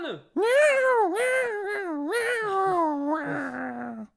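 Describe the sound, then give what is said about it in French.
A leopard gives a long, drawn-out cat-like meow, loud, wavering up and down in pitch over several seconds before sliding lower and trailing off, with no growl beneath it. “retrouvez-moi cet homme et lâchez le léopard”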